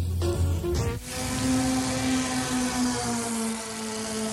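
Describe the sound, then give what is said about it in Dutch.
An MG sports car engine runs steadily, a loud, continuous throaty drone with a brief dip and surge in pitch early on before settling into an even hum. “Zo gezond klonk Ferris MG voor de grote klap.”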